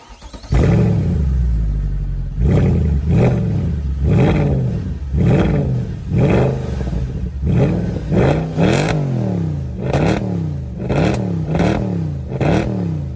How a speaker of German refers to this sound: Also das ist wirklich ganz nach meinem Geschmack. Also mhm. es ist wirklich richtig es echter Sound, nichts reinkomponiert, nicht irgendein Fake-Sound, wirklich schönster V8-Sound. Und es klingt so, wie ein AMG klingen sollte